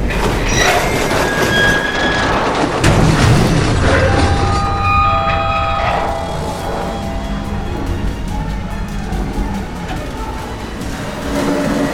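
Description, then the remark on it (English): A lift car screeches loudly with shrill, sustained metal-on-metal squealing, then slams to a stop with a heavy thudding crash about three seconds in as it arrives in the undercity; the grinding rumble continues afterward, with no talking. “Yellow lights came on, and there was a terrible screeching noise, and a thudding crash as a lift car arrived in the undercity.”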